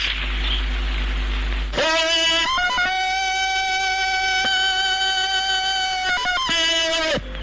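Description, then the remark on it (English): A loud, classic 1930s Tarzan jungle-man film yell, which MGM stated in 1939 was Johnny Weissmuller's voice, rings out alone for about five seconds, a sustained yodeling cry with warbling pitch breaks near its start and again before it ends. “the official line from MGM in 1939 was that it was Johnny Weissmuller's voice”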